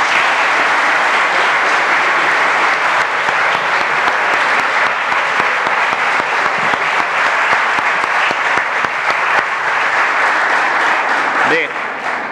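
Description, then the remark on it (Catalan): Sustained applause from an audience at the constitution of the Ripollet Municipal Corporation, a dense, steady clatter of many hands clapping at once that stays loud for the whole stretch before starting to thin at the very end. “Un aplaudiment, si plau per tots.”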